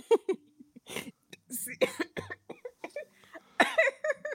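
A coughing fit: a rapid string of harsh, repeated coughs in irregular bursts, fairly close and loud, with a few rough throaty gasps between them.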